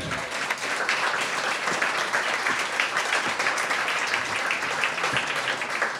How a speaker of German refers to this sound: Und äh, für das will ich ihm hier an dieser Stelle ganz herzlich gratulieren und einen riesen Applaus für den, für den Metronom. Metronom.